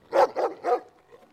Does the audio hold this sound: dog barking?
yes